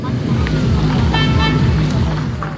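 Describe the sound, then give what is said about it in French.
A car engine drones and strains steadily, its low hum rising and falling as the car is stuck in mud on a slippery slope, while a brief high tooting tone cuts through midway and faint voices murmur in the background. “Certains sont restés bloqués avec leur voiture embourbée dans une côte trop glissante, d'autres ont finalement décidé de rejoindre le spot à pied.”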